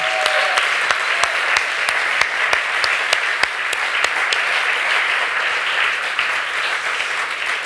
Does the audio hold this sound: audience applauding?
yes